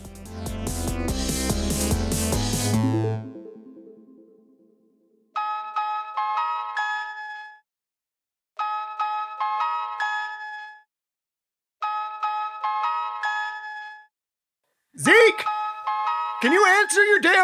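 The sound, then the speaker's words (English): A misplaced mobile phone rings somewhere in a house while someone searches for it, with a bright, chiming melodic ringtone, repeating three times with short pauses after a loud musical burst, then a voice starts talking over the final ring. “My advice would be follow the ringing sound.”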